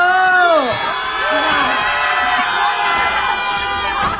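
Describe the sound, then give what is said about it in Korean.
A large crowd of fans outside cheers and screams continuously, a dense wall of high-pitched shrieks and whoops that stays loud and sustained throughout, with sharp rising squeals cutting through near the start. “밖에 팬분들이 와. 네, 난리가 났어요.”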